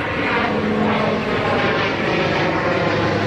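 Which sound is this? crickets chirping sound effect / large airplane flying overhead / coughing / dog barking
large airplane flying overhead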